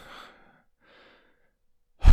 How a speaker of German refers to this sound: ganz schön schwer atmen heute eigentlich. irgendwie.